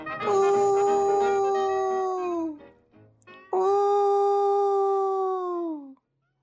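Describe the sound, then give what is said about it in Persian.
A wolf howls twice, each long, steady call holding its pitch before sagging downward at the end, loud, with a short pause between them and no talking. “و به همین خاطر گرگه شروع کرد به ناله کردن و زوزه کشیدن اونا هر شب مهمونی میگرفتن و گرگه هم هر شب ناله میکرد و زوزه میکشید”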